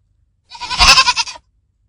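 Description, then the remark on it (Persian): A single loud goat bleat, lasting under a second with a wavering, quivering tone, set against silence. “اگر این هجای آخری رو برداریم از اون کلمه بکوس فقط یک ب باقی میمونه و به نظر میرسه از قرار این ب چیزی نیست مگر صدای بوز”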